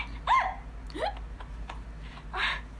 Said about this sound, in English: Don't tell me she gets hiccups when she's like trying to get strong emotions. Probably because she was crying.